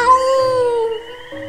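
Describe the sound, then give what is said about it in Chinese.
A single drawn-out meow, voiced by a person imitating a cat answering in a children's story, loud and sustained with a slightly falling pitch before a brief lift at the end. “小猫答应说：“ 喵。”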